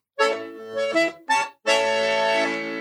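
An accordion plays up close: three short, reedy chord bursts in quick succession, then a longer held chord that swells and slowly fades, with no voices.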